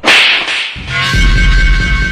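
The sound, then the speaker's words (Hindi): A loud, sharp slap, a crisp hard smack of a man striking another across the face after getting up from beside a truck tyre, followed by a steady noisy rumble with a faint hum underneath. “tyre के पास से उठ के आया और जोर का एक थप्पड़ मारा”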